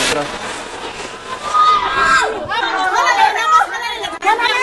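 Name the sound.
crowd screaming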